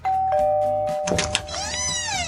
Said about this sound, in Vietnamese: cánh cửa ngôi nhà nào sẽ mở ra và cặp đôi nào sẽ xuất hiện, chúng ta hãy cùng nhấn chuông và cùng chờ đợi nhé.